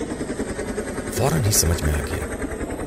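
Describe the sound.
A steady mechanical engine drone with a faint rhythmic pulsing from a helicopter's rotors, heard in a jungle and growing gradually louder, runs throughout at moderate loudness while a person speaks briefly over it.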